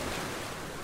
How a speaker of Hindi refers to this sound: camera torch जैसे काम के सामान लेकर प्रिया रात के अंधेरे में ही बीच की ओर निकल पड़ी जैसे जैसे वो आगे बढ़ रही थी समंदर की आवाज और तेज होती जा रही थी